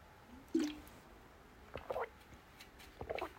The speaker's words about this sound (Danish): jeg tog lige en slurk vand